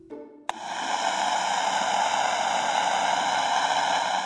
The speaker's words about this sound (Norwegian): Men det er ingen musikk eller snakk på noen av kanalene. Bare skurring.